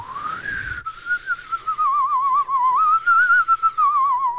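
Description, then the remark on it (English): A person whistles a wavering, gliding tone with heavy vibrato, mimicking the eerie warble of a theremin. The whistle is steady and alone, sustained for several seconds after a brief breathy rise. “That's the best I can do with a whistle.”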